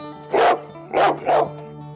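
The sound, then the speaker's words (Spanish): A black dog barks three times in quick succession, loud, the barks sharp and evenly spaced over a faint steady hum. “Usted lo ha dicho, el perro negro.”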